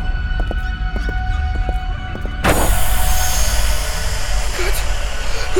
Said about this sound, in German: Scheiße, die Beben werden immer schlimmer.